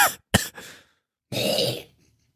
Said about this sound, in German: Oh, aber bitte huste am Mikro vorbei, ja? Wir wollen uns nicht bei dir anstecken.